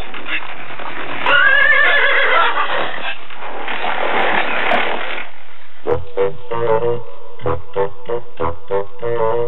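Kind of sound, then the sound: animal, horse whinnying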